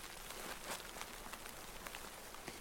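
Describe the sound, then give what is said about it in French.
Ice cracking under the weight of snow: faint, irregular ticks and brittle snaps scattered over a steady soft hiss, quiet, with no voices. “Écoute, on entend, le, on entend le bout de la glace qui craque. Je pense que c'est sous le poids de la neige.”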